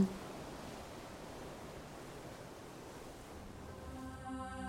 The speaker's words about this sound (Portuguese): Passa uma tarde em Itapuã, ao sol que arde em Itapuã, ouvindo o mar de Itapuã, falar de amor em Itapuã.